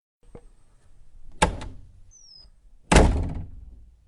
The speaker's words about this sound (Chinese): 林欣把胡杨推出门外，砰的一声关上了门。